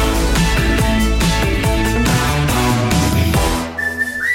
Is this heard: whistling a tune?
yes